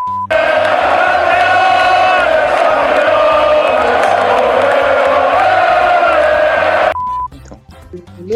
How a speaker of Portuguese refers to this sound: Falando na torcida, a torcida gritou campeões, né? Campeões, campeões.